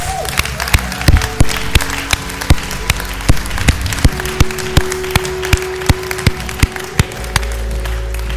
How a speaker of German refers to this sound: Komm, wir geben mal einen fetten Applaus.